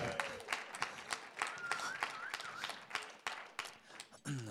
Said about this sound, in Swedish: så ja, vi kan ge en applåd faktiskt, det är hon värd.